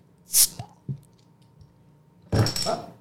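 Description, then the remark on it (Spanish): A bottle of pomegranate basil drink, to be mixed with vodka for a cocktail, being opened: a short sharp hiss, a faint click, then a longer, louder rush of noisy fizzing and rattling. No one speaks. “Así que vamos a abrir esto.”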